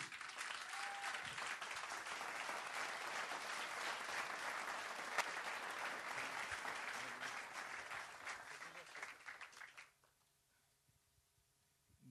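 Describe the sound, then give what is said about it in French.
Sustained applause from a large audience welcoming a guest author, dense and steady for about ten seconds before cutting off abruptly into near silence. “Mesdames, Messieurs, un tonnerre d'applaudissements pour Grégory Mutombo”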